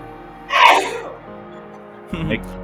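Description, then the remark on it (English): A single sharp sneeze bursts out, bright and forceful, followed after a short pause by a brief murmur of a voice. “God bless you.”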